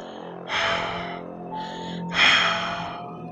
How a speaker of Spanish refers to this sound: Parecía que habíamos entrado a una cueva y solo las luces de los faros alumbraban la carretera, mientras yo seguía escuchando el sonido de aquella respiración.